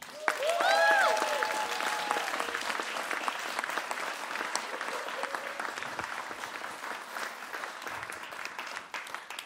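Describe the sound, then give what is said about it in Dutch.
A crowd breaks into sustained applause, steady dense clapping lasting the whole stretch, with a few whoops and cheers rising over it near the start before the clapping carries on evenly. “Dus ehm, geef een warm applaus voor mijn broertje”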